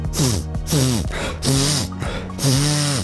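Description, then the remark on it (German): Four snorting, nasal honks in quick succession, each a wet, throaty burst with a wavering pitch, close and loud, like a voice imitating a comical bird's courtship call: the male Rotzkehlchen (Erythacus rufinasus), a small joke bird with a red throat and nose, calling to impress a female. “So klingt der Balzruf des Rotzkehlchens.”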